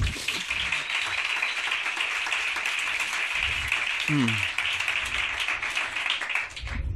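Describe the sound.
Steady audience applause fills the whole stretch, a dense crackle of many hands clapping at even loudness, with a brief murmur and a short voice sound breaking through partway.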